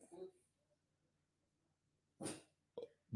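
A French bulldog lets out a few short, sharp barks in separate bursts, fairly loud, with quiet pauses between them.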